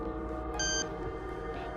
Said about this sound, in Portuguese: E por um momento, o silêncio toma conta da sala, até que um bip é ouvido.